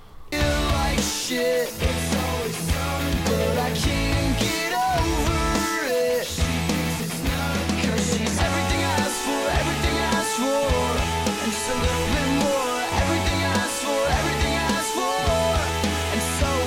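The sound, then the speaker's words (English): A pop rock song plays loud and steady for the whole stretch, with a full band of driving drums and bright guitars filling the mix, and no one talking over it. “And you can tell me if it's uh, music to fuck to.”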